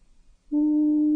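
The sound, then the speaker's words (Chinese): The song of a little whale sounds after a brief quiet moment: a single loud, low, steady moaning tone that holds one unwavering pitch with no talking over it. “小鲸鱼喜欢轻声歌唱，伴它入睡。”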